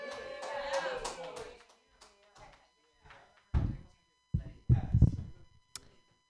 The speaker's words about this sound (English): So clap for me. Yay, clap for me. Yay.